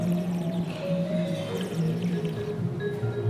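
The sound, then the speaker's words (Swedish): Someone slurps sake, drawing air inward through the liquid in the mouth as if whistling inward, making a steady, whistly, bubbling gurgle on the tongue. It is fairly loud, lasts about three seconds, and has no talking over it. “Så, som du visslar, fast inåt. Jaha. För då får du att det bubblar lite på tungan.”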